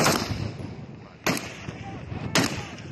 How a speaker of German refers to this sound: Plötzlich fallen Schüsse.